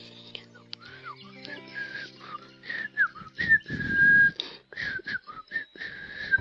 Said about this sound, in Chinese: 一只刺猬正悠闲地哼着小曲，吹着口哨。